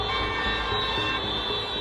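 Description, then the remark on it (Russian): Passing cars blare their horns in greeting at women protesters standing in a chain near Komarovsky market in Minsk, Belarus, a sustained, overlapping chorus over loud street traffic noise, with no break across the short stretch. “Их приветствуют сигналами проезжающие машины.”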